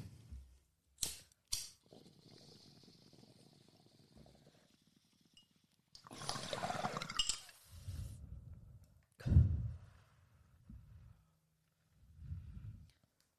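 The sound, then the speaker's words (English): A couple of sharp lighter-like clicks, then a long hissing draw and a breathy exhale of someone smoking black cherry gelato cannabis flower, followed by a low puff and a soft sigh, with no talking. “We gonna smoke.”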